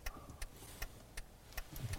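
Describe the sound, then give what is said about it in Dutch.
A car's hazard lights tick steadily, six crisp clicks at an even, quick pace, over a low, rumbling engine hum. No one speaks. “ik doe heel veel dat irritante knipperdingen aan voor. Dat we niet eh, net na de hat-trick eh, dood worden eindigen met een, eh, met een andere wagen achterop.”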